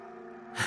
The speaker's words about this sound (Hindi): अपने पीछे किसी के जोर जोर से सांस लेने की आवाज सुनाई देती है